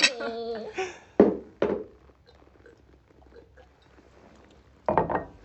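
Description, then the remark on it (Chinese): Wine is poured into a glass for a guest during a toast, a soft, steady trickle running for a few seconds between short voiced bursts, with a person speaking at the start and again at the end. “给宝贝倒酒，宝贝辛苦了，辛苦了。”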